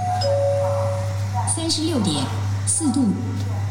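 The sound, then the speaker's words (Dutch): A short electronic chime tone sounds, then an automated voice makes a brief announcement in Mandarin, all over a steady low machine hum, from a metro gate in China that measures a passenger's temperature and announces it. “En als je daar dus in de metro bent, dan ga je door een poortje en dan wordt je temperatuur gemeten. En die wordt meteen dus omgeroepen.”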